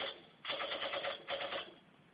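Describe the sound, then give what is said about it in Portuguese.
Two short bursts of rapid, rattling gunfire, each lasting about half a second, with a brief gap between them. The shots sound thin and tinny, like a canned sound effect, and no one speaks. “Foi muito sem graça que dá um tiro e quem fez a piada, porra.”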